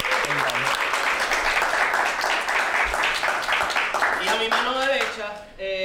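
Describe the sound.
Dense, steady applause from a crowd, a loud continuous wash of many hands clapping, with a voice rising briefly through it near the end as the clapping fades.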